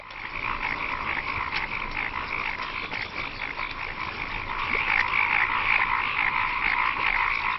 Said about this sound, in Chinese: 大多数青蛙化险为夷。第二天，它们依旧在水田中鸣叫。